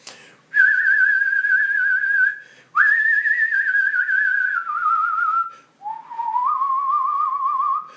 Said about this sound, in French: c'est la, la scie musicale, euh, le fameux thème du film, très organique aussi, très viscéral